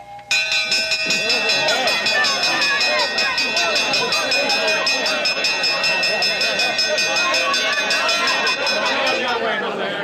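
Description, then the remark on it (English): A metallic breakfast gong is beaten at eight o'clock to call people to breakfast, struck rapidly and steadily for about ten seconds, its loud, bright, shimmering ring building into a sustained wash of clanging tones that pulses with each strike. “Might as well let 'em have the gong soon as it's eight o'clock.”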